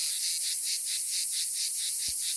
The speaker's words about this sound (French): C'est oh, Cicada orni, Cicada traatra et l'Iristas plebeius. c'est quasiment les cigales les plus communes du sud de la France, en tout cas qu'on en entend le plus facilement.